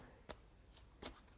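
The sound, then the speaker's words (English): Quiet shuffling of a deck of tarot cards, with three brief, crisp flicks of cards spaced unevenly over a soft background hush. No one speaks. “That's me doing additional shuffling of the cards, and that's so we get random messages from spirit”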